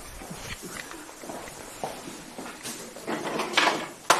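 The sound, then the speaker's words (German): A drawer of a display cabinet at an observatory slides open with a rough, scraping rattle, interrupted by soft knocks and shuffling as someone reaches in, and ending in a sharp clack. Moderately loud, with no one talking. “Hier wird eine Schublade aufgemacht”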